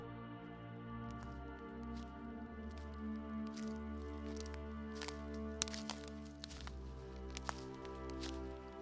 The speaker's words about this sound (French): Tu entends des pas qui approchent.